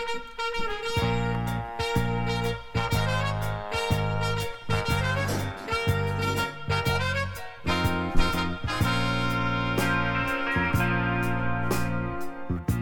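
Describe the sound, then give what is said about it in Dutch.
A song plays steadily and fairly loud, with a driving bass line, rhythmic drum hits and layered melodic instruments throughout, and no one talking over it. “Draai ik nog één liedje ondertussen.”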